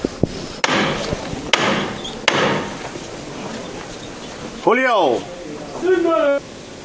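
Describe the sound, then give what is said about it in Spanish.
A foreman's hammer knocker strikes a procession float three times, sharp and resonant at a steady pace, over a murmuring crowd, followed by voices calling out. “Hablan ya, ajustan fiscal de tramo y el Capatá los últimos acuerdos y va a sonar de nuevo el martillo.”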